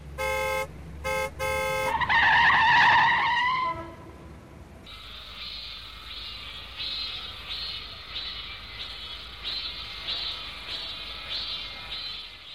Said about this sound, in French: Bon, juste entendre les Klaxon.